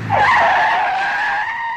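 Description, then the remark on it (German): A car brakes hard, its tires letting out a loud, sustained screech that holds steady for nearly two seconds with a low rumble at the start, with no voices. “haben Sie schon mal einen Bremsweg berechnet?”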